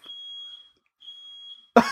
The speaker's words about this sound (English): Wait, is that my fire alarm that going is... off?